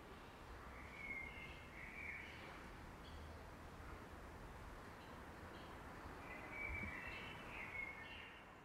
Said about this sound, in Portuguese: Já aqui fora dá para ouvir alguns pássaros. Que beleza, eu estava com medo que com o horário a gente só fosse ouvir pássaros eletrônicos, mas olha que beleza!